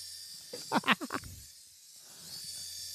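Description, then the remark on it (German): A small toy drone, about 5 cm across, hovers freely over a cluttered table with a faint, steady high-pitched propeller whine and low hum throughout, broken early by a short burst of voiced, rising-and-falling sounds before the even whirring carries on. “es ist eine kleine Drohne, die hier frei schwebt.”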